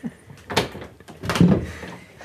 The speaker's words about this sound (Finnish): Voidaan koputtaa. Heillä on ovi, meillä ei.